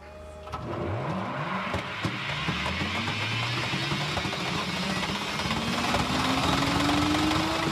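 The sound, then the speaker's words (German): A Hyperloop test pod runs along the test track in Los Angeles opened by Elon Musk: steady roaring rumble with a motor whine that climbs gradually in pitch as it gathers speed, growing slightly louder, with no voices. “Und am Dienstag nun hat er eine Teststrecke in Los Angeles eröffnet. Und das hört sich dann so an.”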